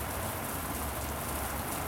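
Heavy rain pours down on a town street by Kong Oscars gate in a steady, unbroken hiss, dense and fairly loud throughout, with no voices and no pauses in the downpour.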